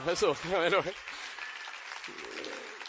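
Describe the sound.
An audience breaks into steady applause, a dense crackling wash of many hands clapping that holds for about two seconds after a brief burst of voice and laughter at the start.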